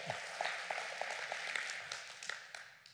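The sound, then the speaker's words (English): A crowd claps for Jesus, many overlapping hand claps forming a dense, bright patter with a few sharper individual claps standing out, holding at an even level with no voices. “clap for Jesus then.”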